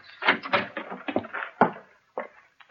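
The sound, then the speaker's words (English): A door leading from a kitchen into a main hall is opened, with a quick run of knocks, clunks and rattles, then a pause and a couple of softer thumps as it settles. “This door, Pierre? Yes, Captain. Through there and up the stairs.”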